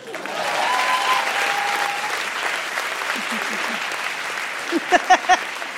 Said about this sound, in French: C'est vrai que ta fille de 12 ans est dans la salle ce soir. On peut l'applaudir.